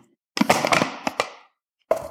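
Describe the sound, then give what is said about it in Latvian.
A plastic bottle cap is twisted onto a bottle that is to be returned for recycling, giving a short burst of crinkly clicks and ratcheting crackles, a brief pause, then one more sharp click. “Tas, kas jā, aizkļūvējam korķīti,”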